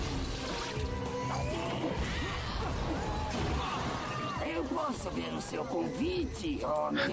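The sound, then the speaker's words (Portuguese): A loud, chaotic cartoon bomb explosion roars throughout, with a scream-like voice wailing and sliding in pitch through the noisy blast toward the end. “É, é o barulho de explosão, parece um, um Wilhelm Scream meio misturado com outras coisas.”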